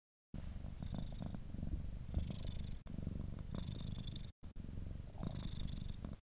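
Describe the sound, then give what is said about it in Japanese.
A cat, Gizmo, a tuxedo cat sitting on the speaker's lap, purrs steadily, a low continuous rumble that pulses with its breathing over several seconds, briefly cutting out twice before resuming. “すごいぐるぐるいってますよね今ちょっとネットで調べたら鳴き声みたいですね日本語だとグルルとかゴロゴロって表現するみたいですけど猫がリラックスしている時に出る鳴き声っていう風にネットには書いてありますね。”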